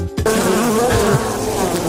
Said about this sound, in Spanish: Mosca, este, mosquito.